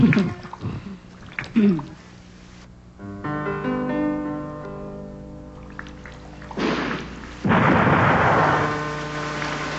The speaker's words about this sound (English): There's no thunder, so he used gunfire.